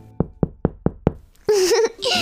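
Five evenly spaced, loud knocks on a house door in a steady rhythm, followed by a short burst of someone speaking.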